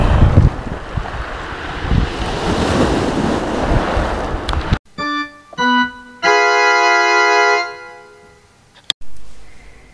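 Wind and crashing waves by the sea roar loudly for about five seconds, then cut off abruptly and give way to a few bright, sustained musical tones.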